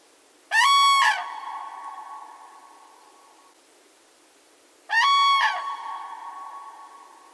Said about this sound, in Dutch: alsof de vogels elkaar iets wilden zeggen.